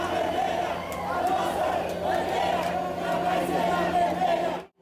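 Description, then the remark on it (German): Bolsonaro supporters arriving at Paulista station in Brazil cheer together, some with horns, and chant a slogan in unison, a dense, sustained roar of many voices that continues steadily before cutting off abruptly. “Angekommen an der Station Paulista stimmen Bolsonaro-AnhängerInnen in einen gemeinsamen Jubel ein.”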